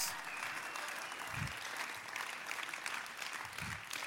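A large group claps steadily in a dense, continuous wash of applause, with a few low thumps and scattered voices cheering faintly within it, an audience applauding and shouting praise to God.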